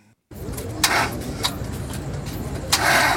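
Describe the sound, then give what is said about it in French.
A car engine cranks and sputters as it struggles to turn over, with a steady low rumble broken by several louder bursts, fairly loud, with no talking. The car, marked Village Noah, fails to start on a Sunday night in Yaoundé. “C'est le bruit de la voiture qui vient nous chercher, où c'est marqué Village Noah.”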